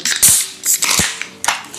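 Beer bottles being opened together after a countdown from three: a handful of sharp metallic pops, each followed by a short bright fizzing hiss, spread across about two seconds with no talking.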